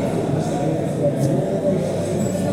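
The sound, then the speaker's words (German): Steady wind buffeting a microphone held into a hole that air blows out of, a loud low rumbling roar that holds constant for a few seconds with slight surges. “Ich halte mal mein Mikrofon. Da kommt Wind raus. In dieses Loch hinein.”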